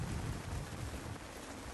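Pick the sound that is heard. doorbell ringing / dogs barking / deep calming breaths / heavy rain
heavy rain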